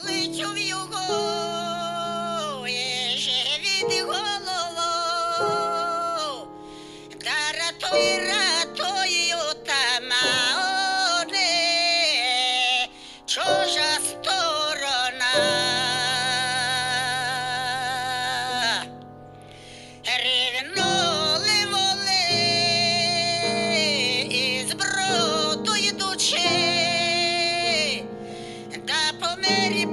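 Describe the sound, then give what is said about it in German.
A pianist plays sustained chords and melody on a grand piano beneath the thin, tinny voice of a Ukrainian female folk singer coming from a smartphone set on the piano's music stand, the music continuous with brief pauses. “Er stellt das Smartphone auf den Notenhalter seines Flügels. Die scheppernde Stimme der Sängerin ertönt. Dazu spielt er.”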